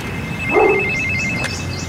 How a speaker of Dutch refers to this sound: Ja, dat is eh, de telefoon.